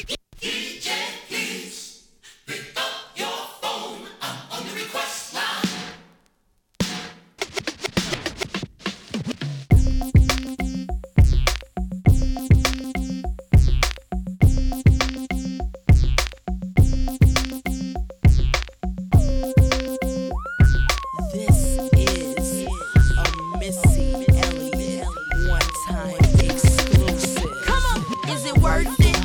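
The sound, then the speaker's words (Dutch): A hip-hop song plays loud. A few seconds of sparse sound open it, then a heavy, steady beat with repeating bass and synth lines comes in and carries through to the end. “Dit is … van ….”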